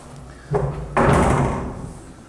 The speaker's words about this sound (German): Hier wieder eine große Tür.